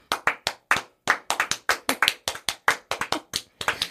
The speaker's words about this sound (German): Komm, ja, wir, ey, wir können einmal wirklich, ganz kurz, wir können mal einmal 20 Sekunden für uns klatschen.